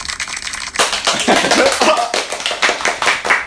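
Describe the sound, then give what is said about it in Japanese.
A burst of applause sound effect starts abruptly after a short quiet moment, then keeps going as a dense, crackling wash of many hands clapping at a steady, fairly loud level. “うわ急に拍手急に拍手来ましたこれあれですよねあの効果音の拍手”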